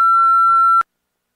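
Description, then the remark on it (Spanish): An electronic interference tone: a single steady, loud beep, a pure high-pitched whine with faint harmonics, holds for about eight-tenths of a second and then cuts off abruptly into silence. “esa es la interferencia”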